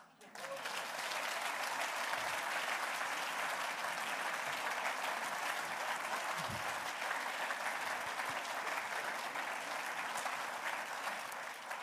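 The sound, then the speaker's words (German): An audience applauds to welcome a guest, a dense steady wash of clapping hands that starts abruptly and stays loud and even for about twelve seconds without letting up. “Und jetzt sind Sie dran mit dem Applaus.”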